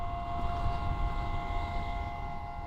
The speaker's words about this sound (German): Es ist eine Art Windharfe, die die Wolken zum Singen bringt. Angebracht ist diese Harfe an sogenannten Nebelnetzen